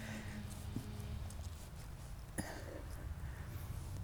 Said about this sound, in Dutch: je wil even naar een paard kijken. die komt ons hallo zeggen.